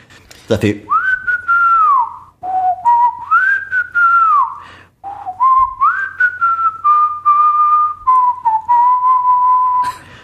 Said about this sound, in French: Je connaissais pas ce film. J'ai regardé le film pendant une semaine. J'ai sifflé cette cette musique.